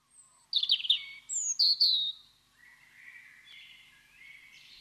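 An Eastern wood-pewee sings outdoors: a burst of bright, high chirps, then drawn-out, slurred whistles, clear, with no voices present.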